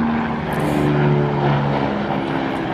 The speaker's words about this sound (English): There's a helicopter.